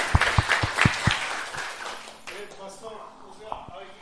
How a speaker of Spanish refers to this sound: Oye, eso se merece un aplauso a Dios, ¿no? ¿No cree usted?